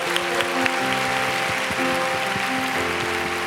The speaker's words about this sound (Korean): 네, 늦게 오신 분이 있을 수 있으니까 오늘 처음 교회 오신 오륜교회 처음 발을 어, 디디신 분들 위해서 어디 있는지 잘 모르지만 그분들을 위해서 좀 박수 할까요? 잘 오셨습니다.